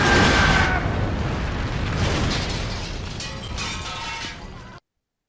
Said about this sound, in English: That's a good way to do the explosion.